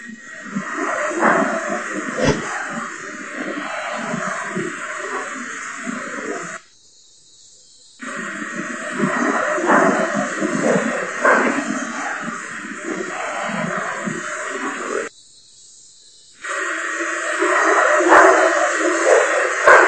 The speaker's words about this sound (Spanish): Ah, que esta psicofonía ya tiene otra trascendencia, se ve con otros ojos o se escucha mejor con otros oídos.